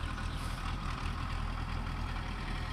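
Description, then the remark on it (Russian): A Belarus tractor engine runs steadily as the tractor is about to drive past, a continuous low diesel rumble with a throbbing idle and broad mechanical noise, holding at an even level throughout with no voices. “Так, трактор сейчас проедет? Да, сейчас проедет.”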